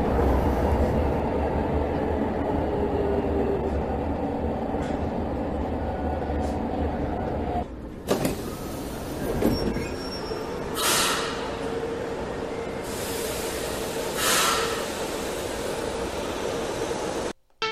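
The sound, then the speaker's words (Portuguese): A prototype metro train on São Paulo's first metro line rumbles along steadily during its testing phase at Jabaquara, with high, thin wheel squeal ringing over the heavy low roar, then clattering bursts and hissing swells toward the end. “O trem protótipo inicia a fase de testes em Jabaquara. É a primeira linha do metrô de São Paulo.”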